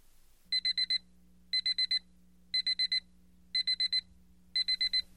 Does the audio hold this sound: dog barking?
no